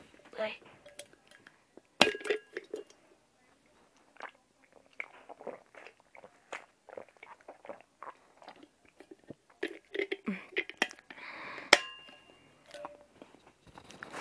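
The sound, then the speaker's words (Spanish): Someone drinks water, with a bottle and glass clinking: scattered clicks and handling noises, a few bright ringing clinks, and soft sipping sounds in between, fairly quiet overall. “así que si ustedes me disculpan, voy a tomar agua.”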